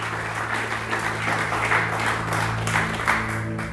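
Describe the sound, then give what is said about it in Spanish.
Sustained applause from an audience, given for Jesus Christ one morning, a dense, steady wash of many hands clapping at once with no gaps, holding an even loudness throughout, with a faint low hum underneath. “Bueno, de pronto cuesta esa unción, pero vale la pena porque quien te sostiene en medio de cualquier circunstancia se sigue llamando Jesucristo, al cual le pido que le dé un fuerte aplauso en esta mañana, por favor.”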